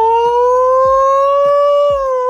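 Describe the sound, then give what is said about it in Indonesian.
A loud, steady wailing nuclear alert siren, used as an alarm sound, holds two sustained tones with rich harmonics, rising slightly in pitch, while a few short low thumps punctuate it underneath. “SMP gue tuh punya alarm sound itu lagu uh, alert nuklir yang tuh”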